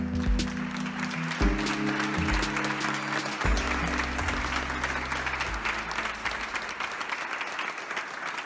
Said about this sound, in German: das ist Ihr Beifall.